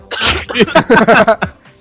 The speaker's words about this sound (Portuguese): Ele tá tossindo, porra.